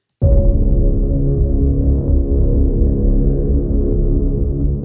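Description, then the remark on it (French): An opening theme jingle kicks in abruptly with loud, deep sustained synth tones that hold steady and drone throughout, with no voices over it. “Générique de l'émission, c'est parti.”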